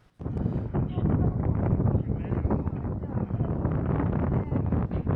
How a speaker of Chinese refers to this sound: 这个风声也挺大，这个这是我在做实验的时候拍的一小段视频